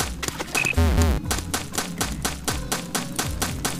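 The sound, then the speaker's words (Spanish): A rapid, steady run of sharp mechanical clicks as switches in a video game are activated one after another, with brief electronic tones near the start and a low hum underneath. “como ya se dieron cuenta, se cambian más rápido los interruptores, se escuchan cuando ya están abiertos, cuando ya están activados.”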